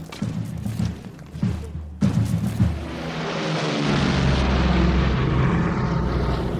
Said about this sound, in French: Ah, ça y est, il y a une escadrille. Oh, c'est-à-dire qu'il y avait d'autres avions.